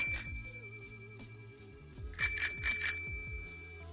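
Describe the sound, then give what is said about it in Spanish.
A bright bell rings over a short rhythmic musical sting, with a louder burst of rapid ringing near the end; no one speaks. “en fin, no se muevan y acompáñenos en la campana.”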